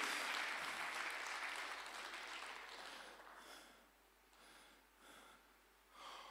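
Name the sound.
applause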